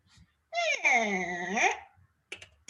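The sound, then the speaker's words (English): A person makes a single high, squealing whistle with a dipping and rising pitch, imitating a dolphin's call, loud for about a second, followed by brief faint clicks and rustling. “Oh, there's a dolphin in there.”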